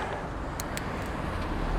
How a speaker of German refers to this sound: Ich Bin jetzt gerade am Fahren und habe so ein Lavalier-Mikrofon jetzt angestöpselt. Der Wind geht schon recht gut, ich hoffe.